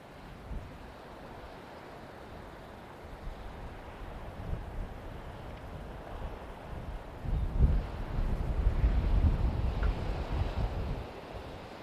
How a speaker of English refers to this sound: As you hear the sound of the waves, imagine them washing over the body.